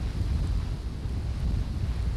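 Steady wind blowing in a continuous low rumble, with dense buffeting in the low end and no pauses, fairly loud throughout.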